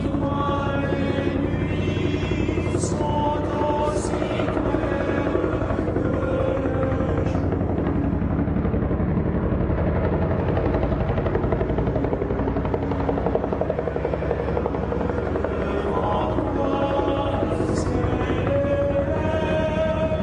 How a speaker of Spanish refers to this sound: El helicóptero sobrevuela el bosque cercano al monasterio.